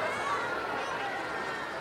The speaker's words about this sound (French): Dans la foule, ça chouine, ça souffle et ça proteste.